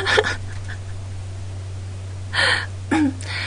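During a broadcast, an earphone cord keeps catching on a clothing zipper in three brief, scratchy rustling bursts, one near the start and two close together at the end, over a steady low electrical hum.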